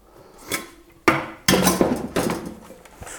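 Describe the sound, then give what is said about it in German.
Metal pots clank and bump together in a few sharp knocks, with scraping and rattling between them as they are shuffled and stacked back into a freshly cleaned kitchen drawer. “Ja, ja, ich räume die Töpfe jetzt wieder ein, die ich gerade raus habe”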